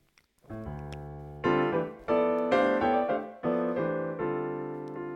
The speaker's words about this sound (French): Vous ne pourrez donc pas entendre 100% euh, du, du piano Tech 8, mais vous en avez entendu quelques bouts.